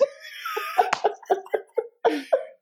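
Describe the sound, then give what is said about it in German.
A loud coughing fit after choking on saliva from inhaling too fast: a strained wheezy start, then a rapid series of about eight harsh coughs in a stuttering rhythm. “Dann geht ein bisschen, bisschen Sabber ins falsche Loch, gell?”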